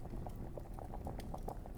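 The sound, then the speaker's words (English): A cauldron bubbles steadily over a central fire, a continuous low, thick boiling rumble dotted with irregular soft pops and blips, with no voices. “the cauldron that sits over the central fire”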